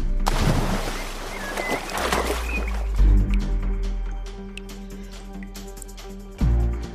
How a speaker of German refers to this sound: Als ihr unten steht, äh, oder beziehungsweise du bist in einem See mit eiskaltem Wasser gelandet, befindest dich in einem runden, düsteren Steinsaal mit steilen, glatten Wänden